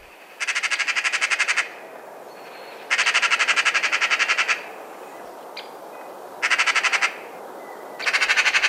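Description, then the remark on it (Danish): Four bursts of a Eurasian magpie's harsh, rattling chatter, each a rapid machine-gun series of dry notes lasting one to two seconds, with short quiet gaps and faint background noise between them. “Men vi har snakket totalt uden om husskaden. Den skal vi altså lige have med på.”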